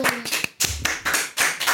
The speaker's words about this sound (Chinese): 故事关门， 掌声鼓励鼓励。